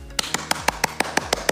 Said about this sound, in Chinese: 可是我真是要趁这个 Podcast 给你拍拍手，你帮我拿一下。